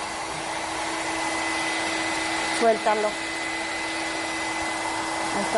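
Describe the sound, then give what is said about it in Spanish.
A hair dryer, held firmly and switched on from below, blows steadily throughout to hold a balloon floating on top of its airflow, a constant airy whoosh with a low humming motor tone, while a voice briefly speaks over it partway through. “Pero ¿qué tal si tú sostienes firmemente la, la, secadora, la enciendes?”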